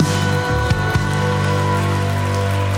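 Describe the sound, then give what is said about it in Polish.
A church audience applauding in praise to God: dense, steady crackle of many hands clapping together, a continuous loud wash with no pauses and no voices over it. “Podnieśmy Bogu chwałę naszymi oklaskami.”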